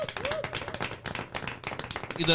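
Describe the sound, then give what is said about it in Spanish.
A burst of steady hand clapping marking the close of a session, many quick sharp claps in a continuous rhythm, moderately loud, with some murmuring voices underneath. “con este aplauso hacemos el cierre de la gente para que lo mantengan en su mente”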